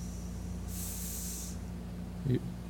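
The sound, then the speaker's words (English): A short, steady hiss lasting under a second, children imitating a snake, over a constant low hum, followed by a brief murmured vocal sound near the end. “So, kids, what, what animal makes a hissing sound?”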